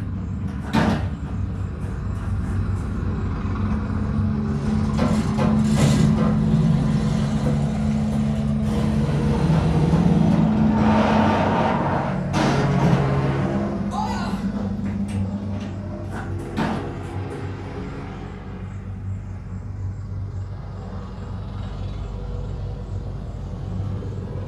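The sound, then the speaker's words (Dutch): A jeep engine rumbles steadily as it drives away, while several sharp crashing bangs ring out in quick bursts as the jeep crashes, then the motor noise fades slightly and carries on alone. No one speaks. “Hij reed natuurlijk weg en je hoorde hem crashen.”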